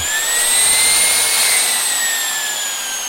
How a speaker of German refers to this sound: Ich habe zum Beispiel so Kappzugsäge, wenn man die anlässt und den Motor hört, das ist irgendwie wie Gesang.